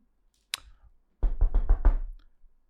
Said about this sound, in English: Knock, knock, knock.